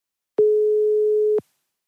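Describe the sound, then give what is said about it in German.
A single steady telephone ringing tone, calling a phone on Mallorca, sounds for about one second, a clean mid-pitched electronic hum that starts and stops abruptly, with silence on either side and no voices. “Viel Spaß dabei und jetzt sollte das Telefon auf Mallorca klingeln.”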